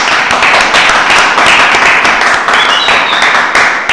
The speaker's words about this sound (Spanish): Bien merecido el aplauso de los hinchas de Atlético y, algunos aplausos de hinchas de San Martín que acá están aplaudiendo eh, el buen triunfo que tuvo el equipo tucumano, ¿no?